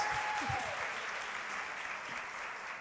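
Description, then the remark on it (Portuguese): A crowd applauds steadily, a dense wash of many hands clapping at an even, fairly loud level throughout, with a brief higher vocal tone near the start. “Aplauda aí esses dois viajados.”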